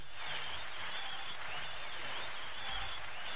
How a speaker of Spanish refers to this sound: ¿Ha habido aplausos? Sí. Bien.